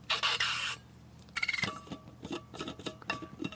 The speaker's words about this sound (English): I am going to refill my coffee cup the next sound you hear is me opening my thermos.